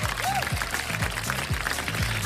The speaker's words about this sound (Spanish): Chida la historia, ¿no? Aplausos, ¿no? Todo chido.